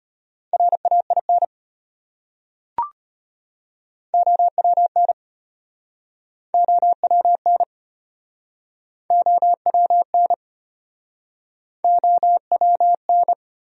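Rapid Morse code at 25 words per minute, sending words from the top 300 most common words, in a steady mid-pitched beep, sent as five short bursts of dots and dashes with pauses between them, plus a single soft click near the start.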